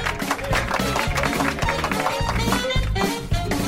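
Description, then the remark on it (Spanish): A canned applause sound effect: dense, steady clapping that stays loud and continuous for a few seconds, with a low rhythmic thumping running underneath and no voices. “Pon un aplauso ahí, Carlos, por favor.”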